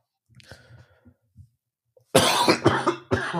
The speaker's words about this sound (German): Er hustet heute den ganzen Tag.